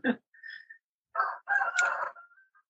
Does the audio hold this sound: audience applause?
no